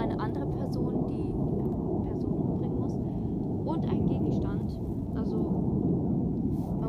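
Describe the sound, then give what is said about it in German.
A steady, loud low rumble of an airplane passing overhead fills the whole stretch without fading, with faint voices murmuring over it. “Sind das, ist das wirklich ein ganz normales Flugzeug?”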